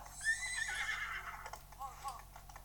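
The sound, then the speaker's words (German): A horse in a video game whinnies once in a long, shrill, wavering call that falls in pitch. Softer, shorter whinny sounds follow over a low background hum, with no talking. “Ich weiß gar nicht, wie dieses Pferd hier heißt.”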